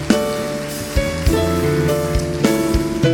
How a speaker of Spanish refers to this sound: Y todos vamos a honrarle con un fuerte aplauso al Señor.